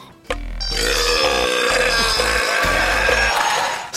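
A single enormous, sustained burp by a British man who holds the Guinness world record for the loudest burp roars for nearly four seconds, deep and guttural with rattling low pulses, extremely loud, with no talking around it.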